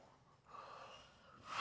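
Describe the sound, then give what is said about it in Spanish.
A person yawns with a soft, drawn-out breathy sound that swells and trails off, quiet, ending in a brief airy rush of breath. “Ay, perdón, estaba bostezando.”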